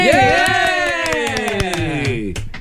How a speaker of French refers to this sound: ça fait quoi se faire, applaudir? Ça t'arrive pas trop souvent, là, mais c'est le fun.